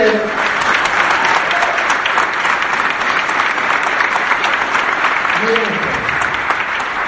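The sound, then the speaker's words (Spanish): An audience applauds steadily for about seven seconds, a dense, even wash of many hands clapping at once, with a brief voice rising faintly through the noise near the end. “Si quieren, si van a aplaudir, a bien.”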